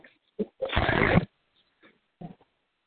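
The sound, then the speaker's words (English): Heavy breathing into a phone: a short huff, then a long, loud, raspy rush of breath, followed by a faint puff and another brief breath, with silence in between. “Somebody breathing awful hard into the phone.”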